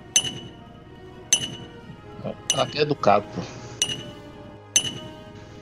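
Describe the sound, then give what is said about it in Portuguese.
A woman hammers metal she is forging at a forge in slow, steady blows about a second apart, each hit sharp and ringing. A voice speaks briefly between the strikes. “Vocês escutam ela trabalhando. E o Aka tá esperando ela terminar de, de martelar o que ela tá forjando lá.”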